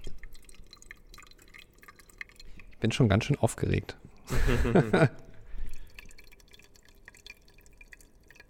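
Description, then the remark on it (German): Coffee drips steadily from an Aeropress that has been turned onto a carafe and is slowly pressed down, a soft trickle into the carafe running the whole time, while a person briefly speaks and laughs over it midway. “Ich halte mal das Mikrofon ran, aber ja, man, man hört auf jeden Fall den Kaffee.”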